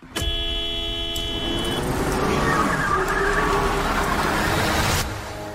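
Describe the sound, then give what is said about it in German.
A loud car horn blares in traffic in one sustained honk lasting over a second, backed by steady engine and road noise that continues after the horn stops. “Hupen, Scheibe runter und dann ein Satz aus Subjekt, Prädikat, Beleidigung, Mittelfinger”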